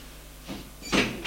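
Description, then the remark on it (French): An office door opening after a green button is pressed, with a few short whooshing, hissy bursts, the loudest in the middle, fairly quiet, with no voices. “La porte s'ouvre.”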